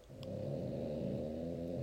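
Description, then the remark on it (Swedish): The speaker's female dog snoring in the background, a low, steady, rumbling drone that continues without a break through the short stretch, with no one talking. “ni hör ju min hund här i bakgrunden. Shorty, om ni hör någonting så är det hon. Men eh, hon snarkar”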